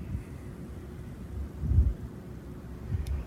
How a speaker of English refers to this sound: There's a storm. I guess the uh, hurricane is uh, coming has come ashore and has hit uh, Washington.